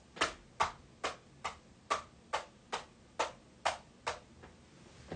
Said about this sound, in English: It was me tapping my knuckles fiercely against um, a hair blower. Let's um, do it in real life since I have a hair dryer beside me. So let's hear it.